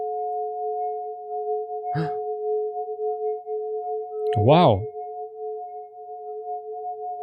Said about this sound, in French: même un sinus peut être beau avec une réverbe. c'est pas une réverbe. Si, c'est une réverbe, plus ou moins.